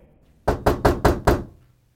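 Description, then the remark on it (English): Five quick, firm knocks rap on a wooden bedroom door in an even rhythm, loud, then fade into quiet with no voices; a mother is knocking. “And then my mother was knocking on my door.”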